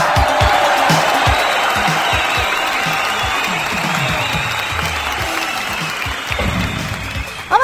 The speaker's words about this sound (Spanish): Fuerte aplauso, público conocedor